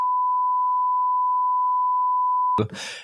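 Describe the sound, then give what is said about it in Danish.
A steady, loud single-pitch bleep tone used to censor speech runs unbroken for about two and a half seconds, then cuts off abruptly as a voice begins speaking. “Først og fremmest, og nu er vi altså i gang med biberen,”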